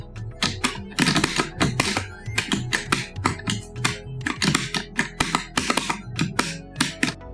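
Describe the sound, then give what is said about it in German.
Rapid, loud plastic clicking from the buttons and lever of an arcade stick that has no microswitches, hammered in quick irregular bursts, with no talking over it. “Dadurch sind die Buttons als auch der Griff aber relativ laut.”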